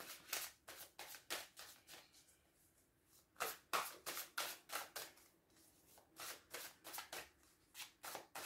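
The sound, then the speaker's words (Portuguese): Tarot cards being shuffled and set down during a tarot reading, a card laid down for the future, a steady series of crisp papery flicks and slaps with brief pauses between bursts, no voices. “Vamos então largar aqui uma carta para como vocês perspectivam o vosso futuro.”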